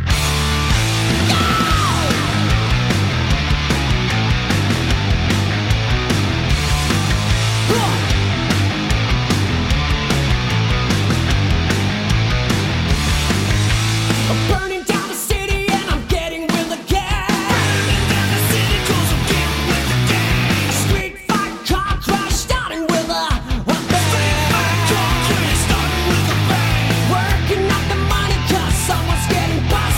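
A loud, dense rock song by a full band plays throughout, with driving drums and heavy guitars, briefly dropping into stop-start breaks midway before charging back in at full volume.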